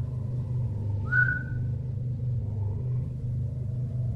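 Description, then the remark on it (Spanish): A single short whistle from a person, a quick rising note that stands out briefly over a steady low rumble of wind, with no voices. “un silbido me llamó la atención.”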